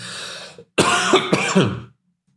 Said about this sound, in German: Sorry, ein kleiner Hustenanfall.